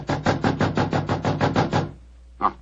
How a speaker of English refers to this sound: Why not answer? Three quarters of an hour before the curtain time. Oh, must be in his dressing room. I'll knock again.